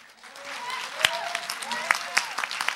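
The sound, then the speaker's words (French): An audience applauds with dense, steady clapping that swells slightly, a few sharper individual claps standing out, and faint voices mixed in beneath it. “On peut l'applaudir.”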